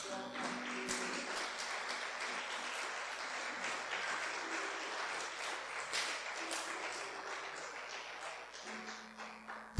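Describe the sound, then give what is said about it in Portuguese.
An audience applauds the Lord steadily for about ten seconds, a dense, even wash of many hands clapping at a constant loudness, with a faint low tone humming underneath. “Pode aplaudir o Senhor.”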